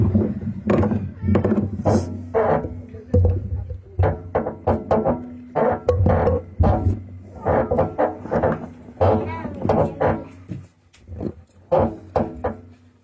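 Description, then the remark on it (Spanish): A table creaks and groans over and over in uneven bursts, with rough, grinding squeaks riding on a low rumble. The creaking is fairly loud and fills the whole stretch without any talking. “No, preciosa, la, la, es la mesa la que rechina, era.”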